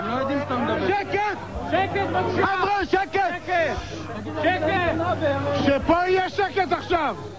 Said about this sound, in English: it takes him more than a minute of yelling at people to keep quiet before he can make himself heard.